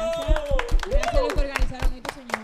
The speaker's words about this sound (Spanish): Así que será hasta una próxima edición. Un aplauso, un mm. aplauso.